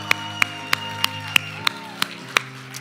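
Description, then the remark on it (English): An audience claps for Jesus before a sermon, eight sharp, even claps in unison at roughly three per second, over a steady sustained musical tone humming underneath. “Can we just give it up for Jesus real quick?”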